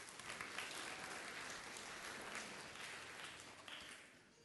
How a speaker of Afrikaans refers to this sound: Geef hulle lekker aan 'n klap toe.